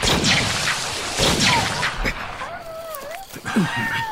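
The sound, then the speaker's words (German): Gunshot sound effects in a Sherlock Holmes radio drama: several sharp bangs go off in a noisy, echoing burst, one landing as a deeper boom, followed by wavering cries and voices in the scene. “Jetzt, Thompson, schießen Sie!”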